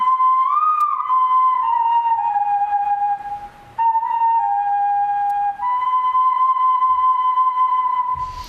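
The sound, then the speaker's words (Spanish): A pre-Columbian ocarina, the museum's oldest piece and a gift from the Colombian ambassador to Miguel Ángel Piedrola, plays sustained, pure whistling tones that step between a few pitches, with a brief pause midway, fairly loud with no voices. “Aquí tenemos el sonido de la ocarina prehispánica que eh, se la regaló el embajador de Colombia a Miguel Ángel Piedrola eh, porque sabía que estaba haciendo una colección de, instrumentos.”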